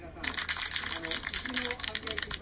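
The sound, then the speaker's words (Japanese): Hands clap rapidly and steadily for a couple of seconds during a baseball game commentary, a dense run of sharp, crisp, fairly loud slaps, with faint voices murmuring underneath. “と拍手を送っておきましょう。”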